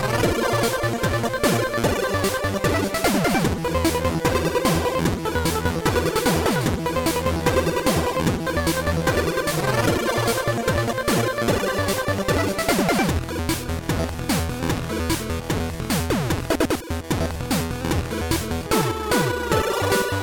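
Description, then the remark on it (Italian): Dense, loud Game Boy chiptune from the Swedish demo scene plays continuously, with bright square-wave melodies and arpeggios over a punchy, full kick drum made with the Game Boy's sweep function on a square wave, fast pitch sweeps repeating in a steady driving rhythm. “sentite come spremeva il Game Boy”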